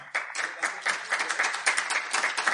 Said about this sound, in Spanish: Un aplauso que no se lo merece.